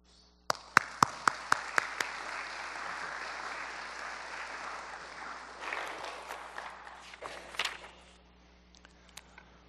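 A church audience bursts into applause welcoming a guest speaker, opening with a few sharp, evenly spaced claps before settling into a steady, dense wash of clapping that swells briefly near the end, then fades away.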